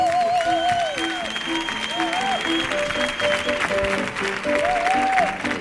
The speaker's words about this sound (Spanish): Fuerte el aplauso